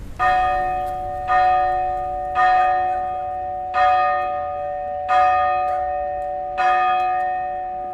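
Festive church bells ring out for the St George's Day village feast in a steady sequence of six strikes, each resonant peal ringing on and overlapping the next. Loud, with no voices.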